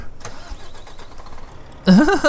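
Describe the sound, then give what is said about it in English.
A truck engine cranks and sputters in a quick, uneven rhythm without catching, fairly quiet and steady, an engine malfunction, before a loud voice abruptly cuts in at the end. “Engine malfunction! Oh no.”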